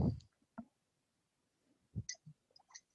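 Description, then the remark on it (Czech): A few soft swallowing gulps with small wet clicks of the mouth and throat, as someone pretends to drink from an empty tea mug, spaced irregularly across a quiet background, with no talking. “Já myslím, že jsem slyšel i to, jak si polknu.”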